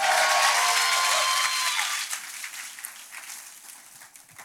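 A large Calvary Church audience claps and cheers loudly for Jesus during a church service, with whoops and shouts rising over dense applause at first, then the cheering drops away and the clapping gradually thins and fades.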